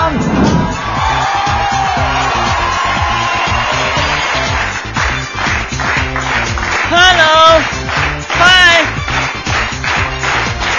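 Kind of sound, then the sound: crowd, audience applause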